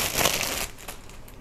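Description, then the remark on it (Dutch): A knife cuts into a cucumber, a small piece being sliced to take to school, with a crisp, crunchy rasp lasting about half a second, followed by a couple of short, quieter chopping taps. No one speaks. “Eh, ik ga komkommer snijden voor op school.”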